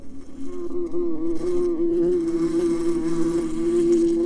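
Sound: honeybees buzzing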